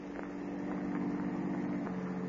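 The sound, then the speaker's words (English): A car engine hums low and steady as the vehicle creeps slowly along a darkened street, following a woman on foot; its even drone holds unbroken throughout with no voices. “Little did she know that close behind, as she hurried down the darkened street, a car was slowly following her.”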